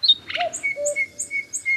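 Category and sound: bird, birdsong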